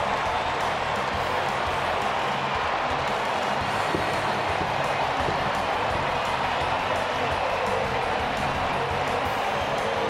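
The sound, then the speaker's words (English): A baseball stadium crowd, on their feet, roars and applauds after Escobar's home run for the Twins against the Tigers, a dense, steady wall of cheering and clapping that stays loud for the full ten seconds with no clear talking. “Nice crowd here tonight. Looks like everybody's on their feet congratulating Escobar.”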